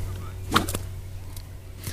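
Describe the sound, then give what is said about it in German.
A whip swishes and lands one sharp, loud crack, followed by a quieter second snap and a couple of faint later swishes, all over a steady low background hum. “Das macht die Peitsche für dich.”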